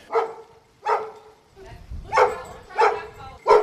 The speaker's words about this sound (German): Wir, gehen jetzt mal hier so ein Stückchen weiter und gucken. Der bellt nämlich.